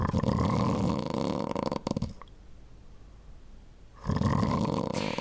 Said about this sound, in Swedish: Näsan både fuktar och filtrerar luften och näsandning minskar risken för att du till exempel ska snarka på natten då du sover.